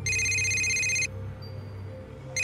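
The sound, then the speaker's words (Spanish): A cell phone rings at nearly 4 in the morning in loud, bright electronic bursts, one tone cutting off after about a second, a quiet pause with low hum, then the ring starting again. “Ya iban a dar las 4 de la mañana, cuando otra vez sonó el celular.”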